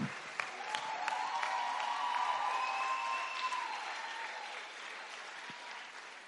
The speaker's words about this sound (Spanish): Dar un aplauso fuerte a esos jóvenes. A ese aplauso le falta algo.